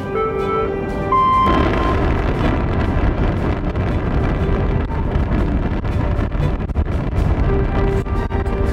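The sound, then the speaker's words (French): The antigravity engines of a transporter power up: a few steady humming tones give way after a second to a loud, continuous deep rumble and roar that persists throughout, with no voices. “Celle-ci inspira, puis, sans trace d'hésitation dans la voix, lança distinctement l'ordre. Activation des moteurs antigravité”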